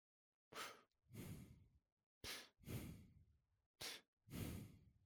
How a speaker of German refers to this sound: Ach, wenn man sich das anhört, dann da atmet jemand Freddy Krüger-mäßig in, ins Mikrofon, ist gar nicht cool.